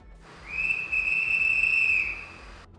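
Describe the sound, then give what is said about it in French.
A single sharp, steady whistle blast, held for about a second and a half at a piercing high pitch, loud, with a low rumble of background noise underneath. “Tout à coup, un coup de sifflet.”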